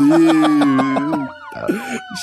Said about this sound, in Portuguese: Mas antes de virar o bloco, toca a sirene, porque o Patriots vai ganhar o Super Bowl em cima do Buccaneers.